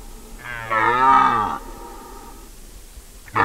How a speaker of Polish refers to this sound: usłyszycie jakiegoś y, rogacza, jelenia bodajże e, na rykowisku. Brzmi to strasznie. Dla tych, którzy nie wiedzą, co to za dźwięk może być.